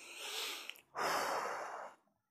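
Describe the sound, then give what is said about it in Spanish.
A person demonstrates a deep breath as part of a breathing exercise: one long, airy inhale, a brief pause, then a louder, rushing exhale, with no talking. “el ejercicio de respiración que él recomienda, suele ser eh, el, el que recomienda más habitualmente, es respirar 30 veces”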